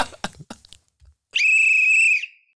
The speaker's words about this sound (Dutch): Zoals ik gisteren ook tegen je zei, mijn fluit doet het niet.